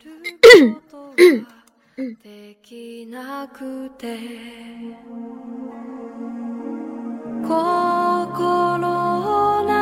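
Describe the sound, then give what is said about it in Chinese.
Two sharp, loud coughs in quick succession, each a short harsh burst, followed by steady soft instrumental music that gradually swells and brightens. “不好意思，刚才又去咳嗽了。”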